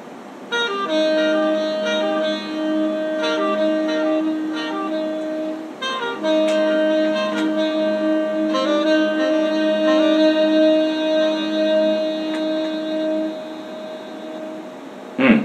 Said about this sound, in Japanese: で、もう片方は、その拍数じゃなくて、ちょっとね、ずらした音にして、こう、広がりを出そうかなと思って、ちょっと聞いてみますか、これで。このサックスの音だけでいきますよ。